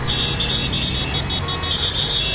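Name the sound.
traffic jam noise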